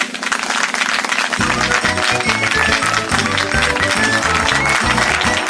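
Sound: audience clapping hands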